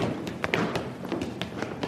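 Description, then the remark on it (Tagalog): Footsteps of people walking down a hallway, about eight or nine soft thudding steps at a steady, unhurried pace, with no voices. “Maya-maya ay may narinig siyang mga naglalakad sa pasilyo.”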